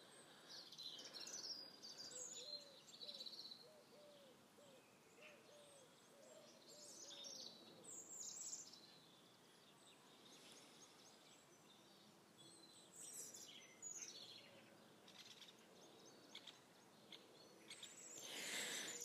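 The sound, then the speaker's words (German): Several birds chirp and tweet throughout, bright calls coming in scattered bursts, with a soft, low hooting call under them early on and a faint outdoor hiss. “Gerade habe ich mir gedacht, das wäre schön, wenn man die ganzen Vögel und alles verste verstehen könnte, was da so gezwitschert wird und so.”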